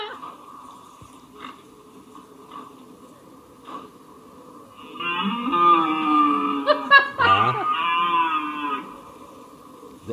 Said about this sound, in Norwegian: er lyden av en elg.